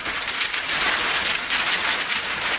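A sheet of paper is shaken steadily, giving a loud, continuous crackling rustle that swells and dips in quick pulses, like a rush of rain, with no voices.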